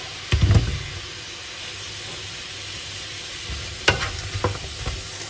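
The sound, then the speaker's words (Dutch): Tomatoes, added to a pan with sliced cucumber, fry with a steady sizzle throughout, broken by two short bursts of scraping and clattering as they are stirred, one near the start and one near the end. “Tomaten erbij.”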